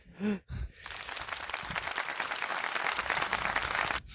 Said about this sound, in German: Kannst du mal Applaus einspielen, finde ich.